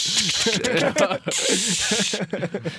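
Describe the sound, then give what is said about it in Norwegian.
A voice imitates an aerosol spray can of spray-on condom, with a steady, breathy hiss that swells and fades. It is loud, and spoken sounds run underneath it. “Og så tar du ut ei jævla sprayboks fra underlomma.”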